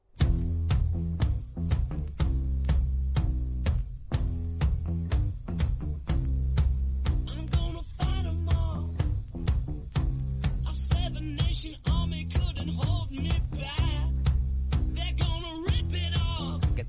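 A loud rock song plays with steady, punchy drum hits and a heavy, driving bass riff, later joined by distorted guitar and a raw vocal; no one talks over it.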